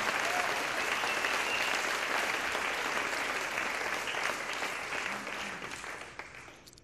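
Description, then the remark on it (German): An audience gives a round of applause to God, clapping steadily in a dense wash of applause that holds for several seconds, then slowly thins and fades toward the end. “Ja, komm, lass mal kurz einen Applaus zu Gott geben.”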